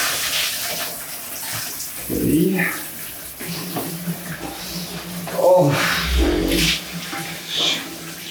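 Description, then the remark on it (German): Cold shower water runs steadily with a broad hiss while a person taking a cold shower gasps and makes short vocal sounds over it. “Kaltes Wasser.”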